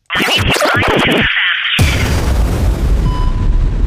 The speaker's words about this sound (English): Um, well, I took the uh, I took the audio from the Xbox and PlayStation teasers when those came out, and I don't. It's probably too fast for you to hear, but I'm gonna play it anyway.